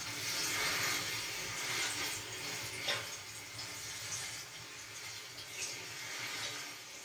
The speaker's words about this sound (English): Now, time to water you. I know you are thirsty. You drink, but not too fast, bueno?